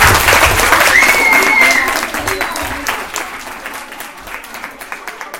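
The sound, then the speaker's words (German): Loud audience applause for the runners who completed laps, dense clapping with a cheer or whistle in the first two seconds, then thinning into scattered claps that fade toward the end. “Sehr Applaus für euch.”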